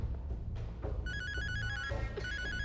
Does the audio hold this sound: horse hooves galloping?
no